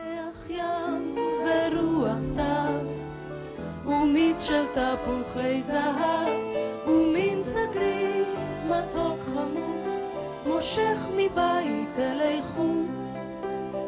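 A recorded Hebrew song sung by two singers over full instrumental accompaniment, playing steadily and fairly loud throughout, with flowing melodic vocal lines and no spoken talk.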